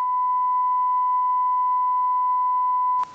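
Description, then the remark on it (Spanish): A single loud, steady beep tone holds one pitch for about three seconds, then cuts off abruptly with a brief click; no voices are heard. “Pitido.”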